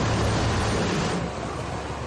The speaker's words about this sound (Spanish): De día una pala quita la nieve de una calle.